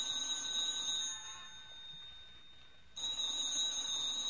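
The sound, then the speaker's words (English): A telephone rings with a shrill, metallic bell tone: one ring, a pause of about two seconds, then a second ring begins, with no voices. “Oh, look, what difference is a phone call now?”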